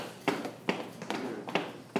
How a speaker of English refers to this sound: Unwind your leg if your right ankle is crossed over the left and just stomp out your feet.